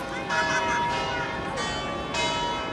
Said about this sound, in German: Das, meine Lieben, ist das Glockenläuten des berühmten Markusturms in Venedig.